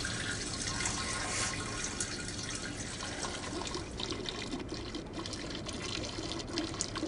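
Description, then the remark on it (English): In a movie scene, a woman's steady stream of urine splashes loudly and continuously. Partway through it turns to vomiting, rougher and more irregular, with sputtering gushes. No talking. “blah, blah, blah, blah, It, you know, it's the, it changes from the sound of pee to vomit.”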